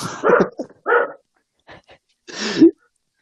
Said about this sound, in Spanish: Bueno, un consejo para todos los perros que nos escuchan también, ya saben. No, no ladren cuando están grabando un podcast. No ladren cuando estén hablando. Es que es, su hora de ladrido, perdón.